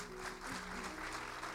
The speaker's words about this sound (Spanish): Un aplauso, por favor.